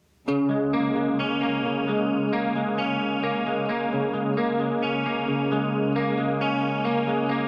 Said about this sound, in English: Check out this tune